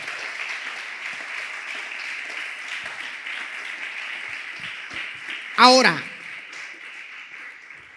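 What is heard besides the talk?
audience applause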